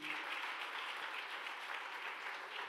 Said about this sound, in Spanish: Dele otro aplauso fuerte al Señor.